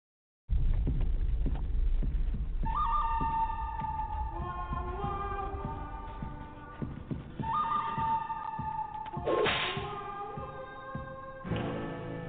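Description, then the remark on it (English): A horse whinnies loudly several times in long, wavering neighs, over a steady patter of clip-clopping hooves and low thumps, in a commercial, with no one speaking. “Make your move, cowboy. I got the horses”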